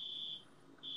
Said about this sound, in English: But you can hear, damn, there's an alarm next door going off. Oh, can you, can you guys hear that?